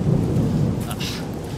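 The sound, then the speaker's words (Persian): Rain that has just started hisses down steadily in a dense, continuous wash, with a deep rolling rumble underneath like thunder. No voices, just the storm at a fairly loud, even level. “بارون چی بود دیگه شروع شد”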